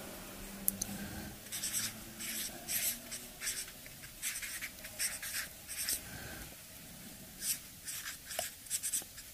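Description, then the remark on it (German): Scratchy pen strokes on paper as someone writes the words "Gottes Welt", coming in short bursts, several across the stretch with small pauses between, with no one talking. “ich habe drüber geschrieben, Gottes Welt”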